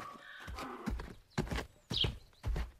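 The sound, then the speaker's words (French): Several donkeys waiting in a village street near a farm, their hooves clip-clopping in a slow, uneven rhythm, with a brief high-pitched call rising partway through. “J'avance encore un peu et de nouveau des ânes plusieurs ânes qui semblent attendre je ne sais pas quoi dans une rue près d'une ferme.”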